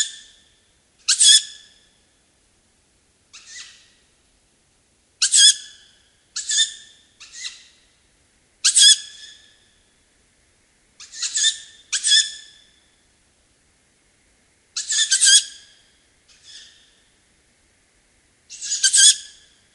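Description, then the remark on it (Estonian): Piercing, raspy begging calls of Ural owl chicks repeat at irregular intervals, each a harsh hissing screech, loud, with silence between calls and no voices. “Need läbilõikavad helid kuulusid händkaku poegadele.”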